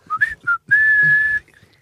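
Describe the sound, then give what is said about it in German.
A person whistles a short tune: a few quick rising notes, then one long steady held tone that fades out, loud, with no talking. “Das ist einfach gepfiffen.”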